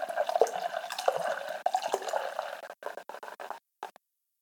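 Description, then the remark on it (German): Apple cider pours steadily from a bottle into a pot, a bubbling stream that breaks into sputtering glugs and a few last drips before stopping. “Jetzt gieße ich dann wieder Hälfte.”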